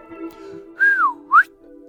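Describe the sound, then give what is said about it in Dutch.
Two whistles blown by air between the thumbs of hands folded together and held to the lips: a longer note that slides downward, then a short upward swoop. Both are fairly loud and clear, over a faint steady hum, with no voices. “Hij vouwde zijn handen samen en hield ze tegen zijn lippen. Hij blies.”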